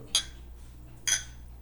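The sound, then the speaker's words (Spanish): Two bright glass clinks about a second apart, like glasses of beer touching in a toast, each ringing briefly against a quiet background with no talking. “sí, sí, entonces, este, salud.”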